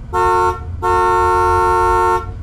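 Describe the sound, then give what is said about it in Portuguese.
A car horn on a street blares continuously in two loud honks: a short blast followed by a long sustained one lasting over a second, with low engine rumble underneath. “Irritado com a minha buzina que não parava, o policial abriu a porta e se aproximou de mim.”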